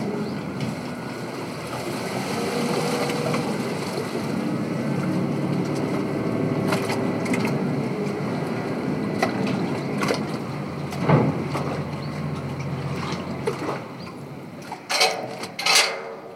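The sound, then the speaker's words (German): A cargo ferry returning from Gstaad to its bay on Frauenchiemsee: its engine drones steadily, a broad low rumble mixed with water wash and some wind, with a few sharper knocks and clanks toward the end. “Die Lastfähre kehrt aus Gstaad zurück in ihre Bucht auf Frauenchiemsee.”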